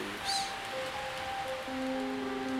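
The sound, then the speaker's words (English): A steady, breathy rush of cold wind sweeping through leaves, moderately loud and continuous, with faint sustained musical tones humming beneath it. “but I can't hear what she's saying because a cold wind is blowing. It's loud and it rustles up all the”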